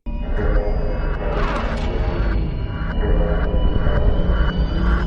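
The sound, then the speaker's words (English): A loud, dense cinematic sound effect from the trailer for the 2007 Transformers movie: a heavy droning rumble with a rising swell, then a steady series of repeated pulsing tones hammering out a regular rhythm. No voices. “and inspired by this repeated sound in the trailer from the 2007 Transformers movie.”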